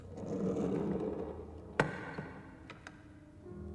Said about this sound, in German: Ein Mann bleibt auf dem Gang stehen und schaut ins Abteil. Mit einer Handbewegung erbittet er die Erlaubnis, einzutreten. Ich schiebe die Tür auf.